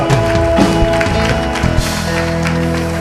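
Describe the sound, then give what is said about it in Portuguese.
A church audience applauds the Lord steadily and loudly for a few seconds, the dense clapping blending with sustained music playing underneath. “Aplauda ao Senhor.”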